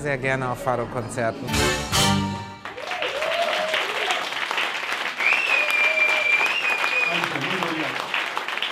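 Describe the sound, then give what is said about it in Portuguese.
A final sung or played fado phrase cuts off, then a German and Portuguese audience in a cellar venue in Paris applauds the fado in a steady wash, with scattered cheers and whistles carrying through to the end, loud and sustained. “Aplausos alemães e portugueses ao fado solto e ao fado lisboeta numa cava em Paris.”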